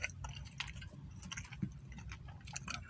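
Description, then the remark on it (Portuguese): Chewing with wet, crunchy mouth clicks repeating irregularly over a few seconds, a low rumble underneath and no one talking. “Tô mastigando ainda.”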